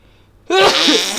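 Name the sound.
a person sneezing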